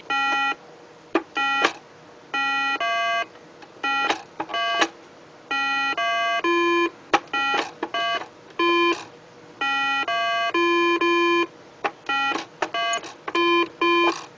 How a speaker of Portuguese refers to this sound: Aquele brinquedo que você deve memorizar da sequência de cores e sons. Lembra?